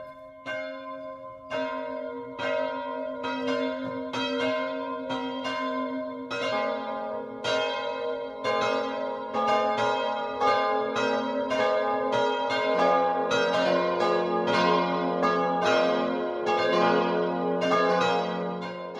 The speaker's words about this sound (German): Vier Glocken läuten zum heutigen Namensfest des heiligen Laurentius aus dem ihm geweihten Gotteshaus in Aura